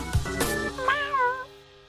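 A single drawn-out cat meow, fairly clear, its pitch wavering as it trails off, preceded by a few brief knocks and rustles.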